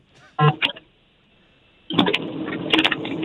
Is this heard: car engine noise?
yes